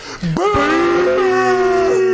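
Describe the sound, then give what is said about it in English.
A stadium crowd about forty thousand strong lets out one long, loud, unified boo, a steady low moan like a cow's that holds a single pitch for about two seconds with no talking over it. “and it's just one sound. Sounds like a cow, but it hurts so much.”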